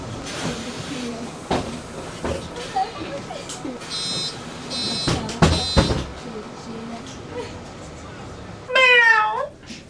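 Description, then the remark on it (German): A cat on a bus lets out a single drawn-out, wavering meow near the end, loud, over a steady rumbling bus background with some clattering and muffled voices earlier. “An der Katze hier im Bus, gell?”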